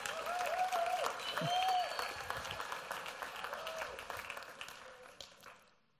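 An audience applauds steadily, dense clapping filling the room, with a few brief whistles and cheers near the start before the applause gradually fades out.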